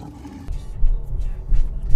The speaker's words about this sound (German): Warum ist da so viel Verkehr?